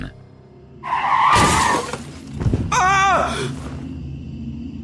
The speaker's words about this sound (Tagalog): Paano'y para akong nakarinig ng malakas na impact ng banggaan.